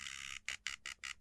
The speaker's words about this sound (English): the one that repeats and beeps like that is infusion mode. So you're essentially getting two tools in one.